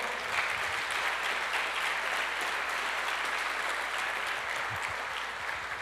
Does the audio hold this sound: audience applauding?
yes